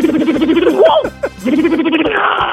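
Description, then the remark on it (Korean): Someone on a Korean radio show's sound-impression contest imitates with their voice the pneumatic impact wrench used at a car repair shop to remove car wheels, a loud buzzing whir that rises into squealing sweeps, breaks off briefly, then resumes its steady rattling drone. “카센터에 가면은 예. 자동차 바퀴 뺄때”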